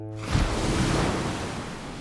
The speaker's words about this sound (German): So ruhig das Meer. Wie Seide über die Bucht gespannt.